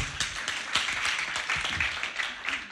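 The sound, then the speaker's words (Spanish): A crowd applauds steadily, many hands clapping in a dense, even patter at moderate loudness for a few seconds, with no voices standing out. “Un aplauso.”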